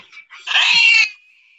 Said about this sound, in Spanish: el gato se asusta.